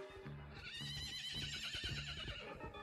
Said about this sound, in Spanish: Clarita escuchó un caballo corriendo